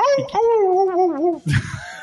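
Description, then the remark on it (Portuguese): A person imitates a police siren, sounding like a mix of police siren and wolf, with a long, wavering vocal howl that rises and dips in pitch for over a second, then breaks into a burst of laughter-like noise. “a mistura de polícia com lobo, essa porra.”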